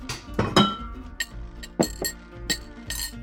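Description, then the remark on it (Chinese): Teaware clinks repeatedly as a pot of tea is made: about seven or eight bright, ringing taps of porcelain and glass at an uneven pace, some sharp and some softer, with no voices. “对对对，还得泡壶茶。”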